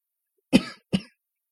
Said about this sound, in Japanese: 咳い込みました。